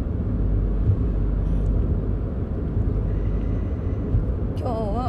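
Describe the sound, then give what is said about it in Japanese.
A steady, loud low rumble of a car driving along a riverside road with a good view and light traffic, heard from inside, with constant road and engine noise throughout; a voice briefly begins right at the end. “この見晴らしのいい川沿いの道そして適度に車が少なくて運転しやすい道です。”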